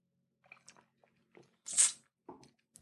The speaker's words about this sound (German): Ich habe mir zur Feier des Tages ein halbes Glas Wein eingeschenkt. Hier. Ihr hört es, echtes IKEA-Glas. Mm.